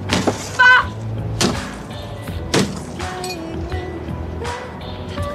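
An iron bar smashing into a car: four heavy metallic blows at uneven intervals, each ringing and clattering briefly, close and loud, with no voices.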